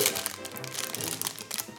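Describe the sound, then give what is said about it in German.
A red-and-white dotted plastic bag of chocolate cookies crinkles and rustles continuously for a couple of seconds, fairly loud, with irregular crackly bursts as it is taken out of a box and handled. “Ich suche mir hier mal was raus aus der Kiste.”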